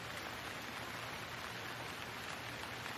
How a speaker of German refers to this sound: Hör den Klang des Regens.